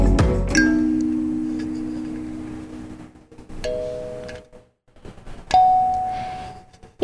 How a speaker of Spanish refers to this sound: En el fondo escuchan ustedes los sonidos de la calimba, que es un instrumento que trajeron nuestras amigas de Conexpresión para darnos la bienvenida y ambientar el Centro de Relajación y Gestión de las Emociones y el Buen Dormir Inspiración con Fama.